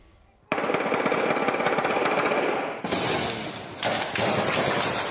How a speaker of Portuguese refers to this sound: Na ação mais dramática, uma quadrilha fortemente armada levou pânico a moradores. Passageiros de ônibus foram feitos reféns e houve troca de tiros quando a polícia chegou.